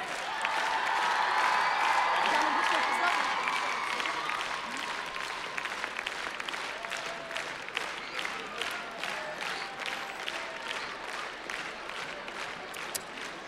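Loud, festive applause from a crowd at a holiday celebration, a dense roar of clapping that gradually thins into more distinct individual claps toward the end, with some cheering voices mixed in early on.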